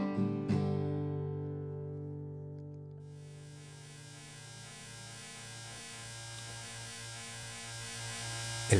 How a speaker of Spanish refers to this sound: sonido amenazante del atrapamoscas es hipnótico. Algunas compañeras sucumben a este eléctrico y terrible canto de sirenas.